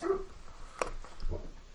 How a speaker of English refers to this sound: Shut up, Murphy. What are you even barking at?